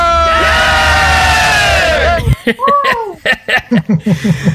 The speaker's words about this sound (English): Uh, and he's making them cheer with him because they're all like, dude, we're tired.